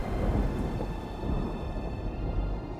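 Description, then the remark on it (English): Thunder rumbles low and steady for a few seconds, a continuous rolling roar with the hiss of rain mixed in, fairly loud and without a distinct sharp onset. No one speaks. “With a crack of thunder, one armed dragon formed of lightning clouds descends upon the creature, bringing against it the full force of the realm of heaven.”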